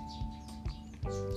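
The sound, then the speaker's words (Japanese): A sparrow chirps three times in quick, evenly spaced bursts, fairly faint, over a steady low hum with no one speaking. “ズームをね閉じたらスズメがチュンチュンチュンチュン言ってましてなんかあいなくなったかなうんいなくなったねあこのすごいチュンチュンはあのあの子に向かっての花向けなんじゃないかな”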